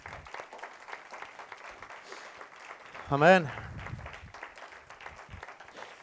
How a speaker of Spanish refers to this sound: Denle un aplauso a Cristo, por favor, aleluya. Amén, amén.